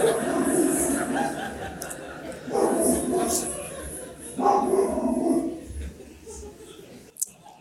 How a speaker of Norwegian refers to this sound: Problemet med rottweileren er at den er mest interessert i å bjeffe